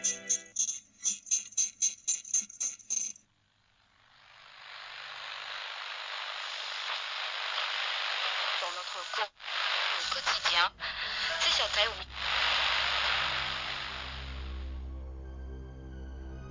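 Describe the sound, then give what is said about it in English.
Rapid electronic beeping gives way to a loud wash of radio static hiss that swells in and holds steadily, crackling and briefly dropping out, while a low droning tone rises beneath it near the end. “Located on the edges of your radio static, you've stumbled upon the lost signal.”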